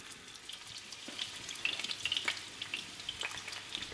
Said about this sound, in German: Genau, ich habe jetzt die tiefgekühlten äh, Mini-Burger vor mir und äh, wir haben sie so entwickelt, dass sie halt auch äh, direkt in die Pfanne geschmissen werden können im tiefgefrorenen Zustand. Und äh, jetzt geht's auch schon los.